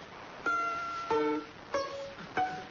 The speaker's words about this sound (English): Wait, I can also play pizzicato.